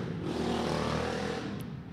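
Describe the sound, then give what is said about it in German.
A very loud motorcycle passing by: the engine roars steadily for the full two seconds, a dense, rumbling motor noise that fades slightly toward the end. “ein sehr lautes Motorrad”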